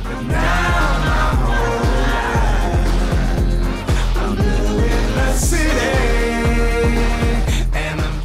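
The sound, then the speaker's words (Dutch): A dense, gritty stack of processed, autotuned choir vocals, a sample from an original song, rides over a loud, steady beat with a thumping kick and deep bass, full and continuous throughout. “Maar je hoort hier ook die gruizige sound.”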